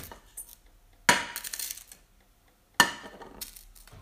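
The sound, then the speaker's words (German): Two sudden bursts of crackling, hissing sizzle from a wet frying pan with batter in it on the stove, each flaring up loudly and fading over about a second, with quiet stovetop noise between them and no talking. “Die war einfach nass, die Pfanne unten, wie man hört.”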